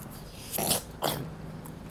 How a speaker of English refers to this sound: Yeah, don't worry about clearing the throat, clown.